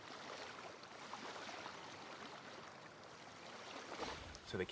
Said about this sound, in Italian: Mentre ci avviciniamo alle grotte, l'acqua si calma.